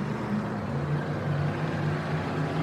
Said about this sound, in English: you can hear the roar of these vehicles